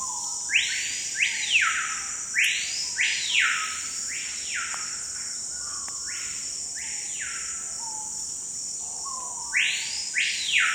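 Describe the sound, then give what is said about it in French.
A screaming piha, a small bird of the Amazon rainforest, calls over and over, loud: ringing, whistled phrases that come in quick pairs, with brief pauses between, over a steady high insect drone. “Le lipogus vociférance. et roller en français, mais ici, on l'appelle cricrio.”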